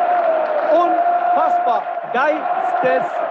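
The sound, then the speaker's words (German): Tens of thousands of Frankfurt football fans cheer in a dense, steady roar that never lets up, with a sustained droning tone running through it while a man speaks excitedly over the noise. “Wahnsinn, was hier los ist. Du hörst es vielleicht im Hintergrund.”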